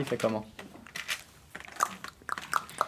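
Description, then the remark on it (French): A voice imitates a horse trotting with a short run of sharp tongue clicks, a steady clip-clop rhythm, fairly loud, after some brief speech. “Comme ça Ça, c'est quand il trotte.”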